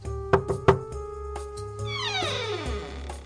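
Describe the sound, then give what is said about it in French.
Three quick, sharp knocks on Nasreddin's door by his exasperated neighbour, fairly loud, over a steady musical drone, followed by a long sliding, descending tone. “Le voisin excédé va frapper à sa porte.”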